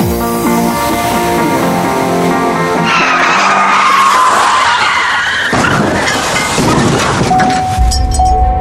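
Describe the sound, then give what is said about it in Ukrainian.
Loud, sustained tire screech of a car skidding, rising into a harsh squeal before a sudden crunching crash and scattering debris near the end; no voices. “у разі, якщо ви постраждали в результаті автомобільної аварії, перебуваючи за кермом автомобіля або як пасажир, пішоход чи велосипедист”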